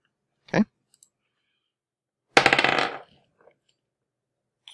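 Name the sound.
dice rolling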